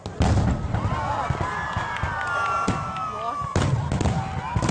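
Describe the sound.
Fireworks burst in a string of sharp bangs and crackles, with whistling rockets gliding up and down in pitch between blasts; loud, with faint crowd voices underneath.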